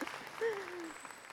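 A short burst of steady applause, a crisp crackle of clapping hands throughout, with a brief falling whoop-like tone rising above it partway through.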